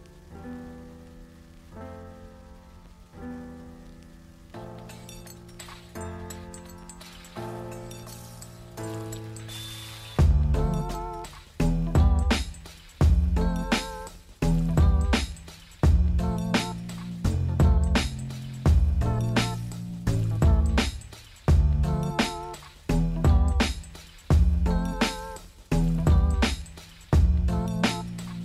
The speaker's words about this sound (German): hören wir doch mal in, ja, in den Klassiker, würde ich sagen, rein, nämlich Song of Storms vom ersten Album